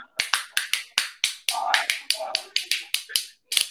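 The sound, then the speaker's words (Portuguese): Sharp wooden clacks from a homemade clapper made of two thin sticks with a bottle cork in the middle, wrapped with tape, about a dozen loud strikes in a quick, slightly uneven rhythm, with a brief pause before the last pair. “Põe aqui no meio uma rolha dessas de, de garrafa, envolve com durex, aí ele vai fazer esse efeito aqui, ó.”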